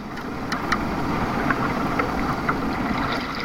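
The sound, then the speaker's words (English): A continuous, full rush of Pacific Ocean surf and wind on Tijuana Beach carries faint, ringing metallic taps that recur roughly every half second, as the metal pylons of the USA's border fence, made of chopped-up railway lines, vibrate when waves hit them. “On Tijuana Beach, the metal pylons of the USA's border fence vibrate as they are hit by incoming waves from the Pacific Ocean.”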